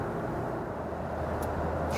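Steady road rumble from inside a car driving on a snowy, curving road at the Zaumberg, a continuous low drone of engine and tyres with a faint brief hiss near the end, no voices.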